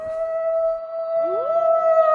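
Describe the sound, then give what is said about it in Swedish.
A person howls like a wolf, a steady drawn-out note, then a second voice-like tone swoops upward to join it. It is loud and continuous, with no talking. “Nej, ja, jag ylade, ylade hela natten.”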